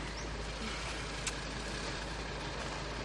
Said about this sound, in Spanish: Adiós. Adiós. El coche se aleja. Dorotea y su hijo lo ven partir.